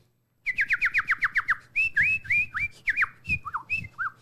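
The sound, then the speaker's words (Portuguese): A bird sings on a sunny day: a quick run of about nine bright, falling chirps, then a string of varied whistled notes and short trills, clear and alone with no talking. “Era um dia ensolarado, os pássaros cantavam.”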